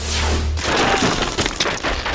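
A wooden wall breaks apart as two people are thrown through it: a loud, heavy rumbling impact gives way to a dense burst of splintering cracks and scattering debris lasting about two seconds.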